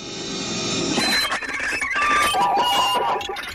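Abstract electronic noise music, a musique concrète piece made in 1958–1959 at the GRM studios: dense, shifting layers of squealing high tones and sliding pitched whines over a hissy wash, steady and fairly loud, with no voices.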